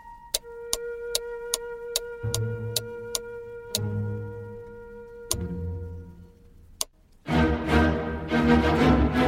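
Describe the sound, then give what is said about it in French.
Steady, evenly spaced ticking of wall-hung pendulum and cuckoo clocks in a clockmaker's workshop sounds over a faint hum, joined by a low mechanical drone midway, before a louder noisy rush takes over at the end. “Son atelier était une sorte de capharnaüm où s'entassait tout un bric-à-brac étrange des ressorts, des rouages, des pinceaux, de drôles d'outils pointus, mais aussi des pendules ou des coucous de toutes sortes qui étaient accrochés au mur.”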